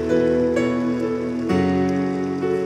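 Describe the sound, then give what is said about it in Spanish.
An audience at a church service claps steadily throughout, a dense wash of applause blended with sustained, held musical tones playing underneath, with no talking. “Vamos a darle un fuerte aplauso a ellos.”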